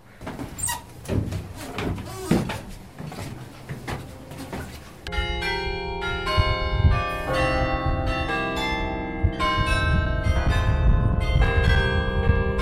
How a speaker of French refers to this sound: Quand on touche un, un bâton, on touche aussi les cloches qui sont juste en haut ici. Donc ces lignes-là sont, en- sont liées avec les cloches.